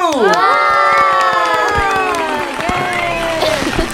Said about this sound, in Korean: 박수!